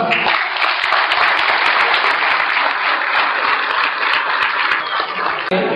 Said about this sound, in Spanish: Listo, bienvenidos al negocio, un fuerte aplauso.